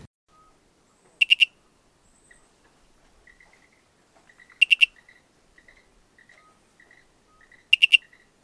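A sharp, triple-pulsed owl call repeats three times, roughly every three seconds, over a soft, scattered background of frog and cricket chirps. No voices are heard.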